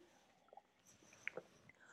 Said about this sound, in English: I'm just going to take a sip of my tea.